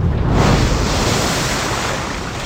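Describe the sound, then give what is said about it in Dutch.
A loud, continuous roar of crashing ocean waves from a giant tidal wave caused by an earthquake, a heavy rushing wash of surf that swells early and then stays steady, with no voices. “Een aardbeving die een gigantische vloedgolf voortbracht.”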